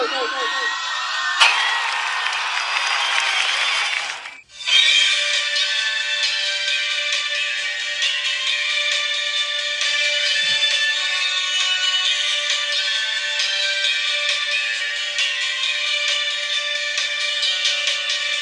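A loud, bright J-pop song intro plays continuously, with whooping and cheering-like shouts near the start and a brief drop-out before the full, dense backing kicks in.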